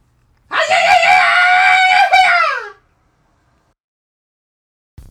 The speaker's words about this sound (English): Yeah, let's do a three count and scream along with us in three, two, one.